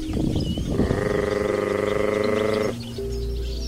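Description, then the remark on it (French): A human voice gives a sustained trilling call, then drops into a low, steady grunt, a call used by honey hunters of the Djao community in Mozambique to summon honeyguide birds. It is fairly loud, with no talking, over faint outdoor ambience. “Même chose au Mozambique, sauf qu'ici les chasseurs de miel de la communauté Djao attirent ces oiseaux avec un son de trill suivi d'un grognement sourd.”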